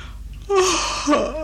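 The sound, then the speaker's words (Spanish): A drawn-out, breathy yawn with a voiced, falling tone that swells and then lifts briefly into a second groaning stretch near the end. “Ah, la etiqueta no permite bostezar en presencia del rey.”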